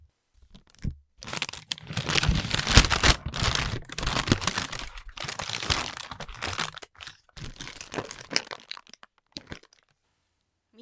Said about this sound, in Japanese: はいもうシンプルですよこれシンプル特に何がどんなテクニックがいるとかでもなくただ紙袋を閉じたり開いたり触ってみたりするだけなんですけども、まあ、そのシンプルこそがやっぱベストなんですね。